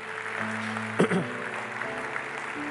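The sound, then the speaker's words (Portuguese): A church audience applauds the Lord in a steady, continuous wash of clapping, with sustained keyboard chords underneath and a brief shouted voice rising above the clapping partway through. “Você deveria aplaudir bem forte o Senhor.”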